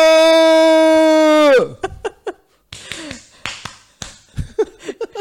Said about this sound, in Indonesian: itu itu tepuk pramuka